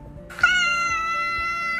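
A single drawn-out cat meow, loud, starting abruptly and holding a steady, harmonic-rich tone for over a second before cutting off. No talking.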